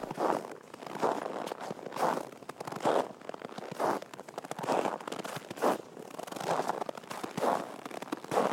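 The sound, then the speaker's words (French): Footsteps crunch through snow at a steady walking pace, each step a grainy burst, about a dozen in a row with no voices. “Voilà, c'était des bruits de pas dans la neige, parce que j'en avais besoin pour un jingle pour la radio.”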